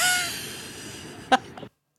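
Squeaking escalators in a museum give off a thin, steady mechanical whine with faint squealing tones, then one sharp, loud squeak and a softer one before the sound cuts off abruptly.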